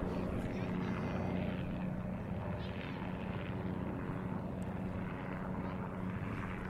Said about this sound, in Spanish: isla nos encontramos en plena ruta de esos tours turísticos que realizan los helicópteros que despegan del Pier 11 de Manhattan. Bueno, eso es un poco la, la demostración de lo que contaba en aquel podcast, ¿no? Aquí seguramente lo podréis escuchar.